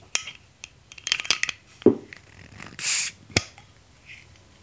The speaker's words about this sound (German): Hä? Es klang, als ob du eine Flasche geöffnet hast. Ja, jetzt ist die Frage, was für eine?